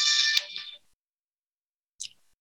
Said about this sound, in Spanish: Las, eh, tuve que contestar y ustedes me disculpan porque si no iba a seguir sonando insistentemente el celular.